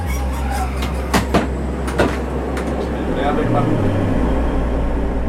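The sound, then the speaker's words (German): A loud, steady ventilation fan drones inside a fuel cell bus, with a deep low hum that shifts pitch midway, punctuated by a few sharp clicks and knocks. “Okay, das ist äh, erstaunlich laut. Ja, das war zum Glück nur die Lüftung, die hat er dann schnell abgestellt.”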